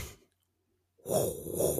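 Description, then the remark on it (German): A voice imitates the red front scanner light of KITT, the Knight Industries 2000 car from the series Knight Rider, sweeping back and forth: a breathy, rasping whoosh that begins after a short silence and carries on loud. “dieses Geräusch, was ich eben gemacht habe, das war ja dieser rote Scanner vorne von, von Kit”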